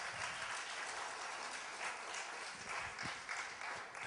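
A steady wash of audience applause, many hands clapping at once in a dense, crackling texture that holds at an even loudness throughout, with no voices standing out.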